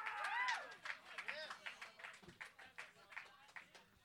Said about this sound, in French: Il me fait dire Let's go, on l'applaudit! All right!